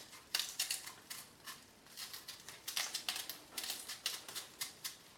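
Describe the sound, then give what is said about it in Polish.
Potatoes being peeled for potato pancakes: a quick, uneven run of short, crisp scraping strokes, fairly quiet, repeating steadily for several seconds with no one talking. “Na początek obiorę ziemniaki.”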